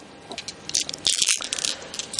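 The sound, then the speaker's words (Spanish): Collected stones clack and rattle together as they're handled, a cluster of sharp, bright clicks and scrapes, moderately loud, with no talking. “Bueno, cogí unas piedras”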